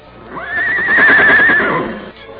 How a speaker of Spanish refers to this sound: Otra vez. Pues ya le dio este condenado animal por estar relinchando.